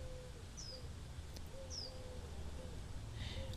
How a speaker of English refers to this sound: I want you to hear what I'm listening to. Can you hear the bird?